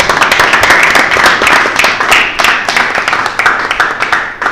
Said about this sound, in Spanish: aplauso, por favor.